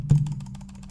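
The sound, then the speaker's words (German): Rapid mouse or keyboard clicking by players racing to build in a computer game, a quick steady burst of about a dozen sharp clicks over a low electrical hum with a brief thump at the start. “So, wer als, damit, so von wegen, wer als erster klickt hat, gewonnen, so, und baut sein ja.”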